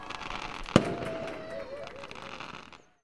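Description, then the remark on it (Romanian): A sharp firecracker bang near the start, followed by a wash of fireworks crackling and popping outside, with faint murmuring voices underneath before it cuts off. “Nu se auzea aproape nimic de afară. Niște râsete îndepărtate, voci, bombe, artificii.”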